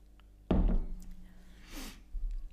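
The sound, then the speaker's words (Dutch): A cup thunks softly against a surface, followed by a brief, airy sip from a drink, quiet, with no talking. “Ik pak even een slokje tussendoor.”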